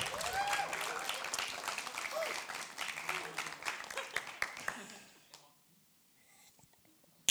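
Audience applause fills the room: a dense burst of many hands clapping that holds steady for several seconds, then thins out and fades to near silence.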